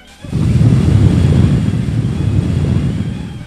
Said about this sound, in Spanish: Entonces, soplaré y soplaré y tu casa derribaré. exclamó el lobo y eso fue justamente lo que hizo.